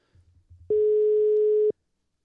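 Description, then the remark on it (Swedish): A single loud, steady telephone ringing tone of an outgoing phone call sounds for about a second, one flat buzzing pitch, preceded by a faint low murmur of background noise. “Får ringa och kolla. Ring och jag, jag, ringer Pippi.”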